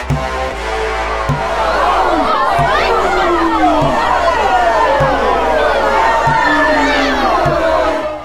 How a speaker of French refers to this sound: Le 2 mai 1807, entouré de soixante albardiers, au milieu des cris et des insultes d'une foule hostile, William Hales se dirigea vers la potence.